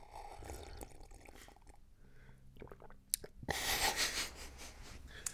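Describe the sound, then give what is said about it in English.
A person drinks a whole cup of coffee brewed that morning: sipping and gulping with small wet swallows and slurps, then a louder rush of breath near the end; no one speaks. “I just drank that whole cup of coffee.”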